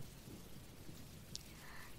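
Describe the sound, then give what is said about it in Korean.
Soft, steady rain hisses and patters continuously with a low rumbling undertone, fairly quiet and even throughout, with one brief brighter drip or tap near the middle. “그리고 빗소리도 들어주시고, 천장을 바라보다가, 그러다가 눈이 무거워지면 자연스레 눈을 감고, 빗소리를 듣고, 그리고 제 목소리를 듣고”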